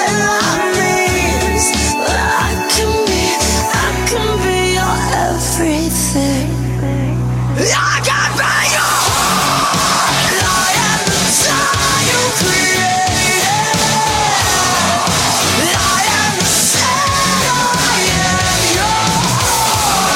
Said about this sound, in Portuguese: o … é uma mistura de … com …, porque é uma mulher cantando